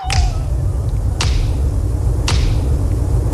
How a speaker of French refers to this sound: mais aussi ces mythiques claquements de doigts qui vont forcément vous dire quelque chose, Renaud.